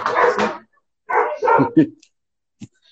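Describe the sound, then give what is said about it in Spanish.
Several dogs bark in short, sharp bursts, a cluster at the start and a few more after a pause, ending with a single faint yip. “Unos perros también”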